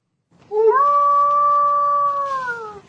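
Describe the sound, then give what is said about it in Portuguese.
A man imitates a werewolf howl: one long, loud wail that slides upward, holds a steady pitch for about two seconds, then sags slightly as it ends. Nothing else is heard. “dá para ouvir o barulho que esse doidão, que esse maluco fazia, porque ele se considera de fato um lobisomem”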